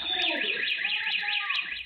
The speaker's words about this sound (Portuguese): São 10h34 da noite quando a câmera de segurança flagra um homem escalando uma casa em Santo André, no ABC Paulista. Ele nem chega a pular o muro quando o alarme dispara.